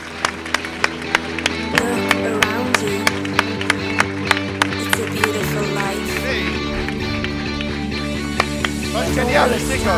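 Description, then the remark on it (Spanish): An audience applauds, with sharp, evenly spaced claps ringing out over a steady crowd murmur and a sustained musical backdrop throughout. “Y este aplauso es para vosotros.”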